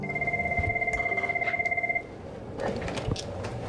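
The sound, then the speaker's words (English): A telephone rings at the Trust Women abortion clinic in Wichita, Kansas, with a rapid electronic warble for about two seconds, clear, then stops as background noise and faint movement continue. “phone calls have probably doubled to tripled.”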